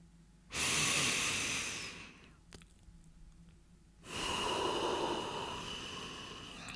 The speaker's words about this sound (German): Wir machen das jetzt mal kurz zusammen. Fünfmal tief in den Bauch atmen.